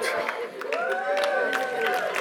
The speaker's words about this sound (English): this is a very encouraging church. So, like, that's why those few people are clapping.